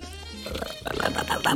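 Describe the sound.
A man imitates a friend's heavy snoring with his voice, a rough, buzzing rattle that grows louder and harsher over a second and a half.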